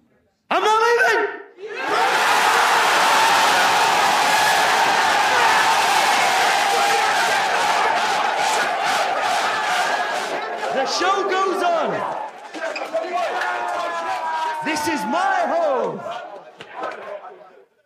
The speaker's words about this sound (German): Dann reingeschnitten Man City-Spieler, die sich jubelnd in die Arme fallen.